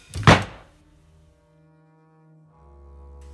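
An attic ladder folds down with one heavy wooden thunk, close by, followed by a fading resonant ring and a faint low rumble. No voices.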